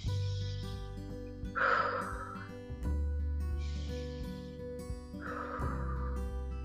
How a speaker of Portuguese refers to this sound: só de você fazer essas duas inspirações e expirações já dá uma acalmada em todo o corpo. Acabei, isso é meditar.